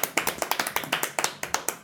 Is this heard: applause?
yes